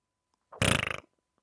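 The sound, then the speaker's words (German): A single short, loud raspberry-like sputter made with the mouth, a voice imitating a fart, with a rapid buzzing flutter lasting about half a second, with no other sounds. “Dann machst du ein Pupsgeräusch, mach mal.”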